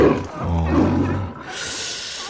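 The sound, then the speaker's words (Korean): A lion roars with a deep, rumbling growl that swells and then gives way to a breathy, hissing exhale. It's a single loud call with no talking. “동물들 환호 소리 한 번 더요. 코끼리, 개, 오, 호랑이, 뭐, 예? 예, 사자.”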